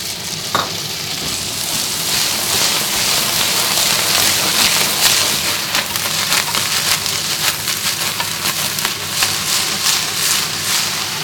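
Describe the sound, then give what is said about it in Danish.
Loud, steady sizzling as a splash of about a tablespoon of water and a teaspoon of soy sauce hits a hot pan at the very end of cooking, a dense crackling hiss with rapid popping and spattering throughout, briefly sharper at the start, with no one speaking. “At man simpelthen lige tilsætter en lille smule soja og en lille smule vand til panden til allersidst”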